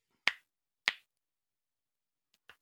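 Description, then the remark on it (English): Knuckles cracking: two sharp pops about half a second apart, then a quieter, smaller pair of cracks after a pause, with no talking. “I crack my knuckles a lot too. Like, I'm not sure you hear that.”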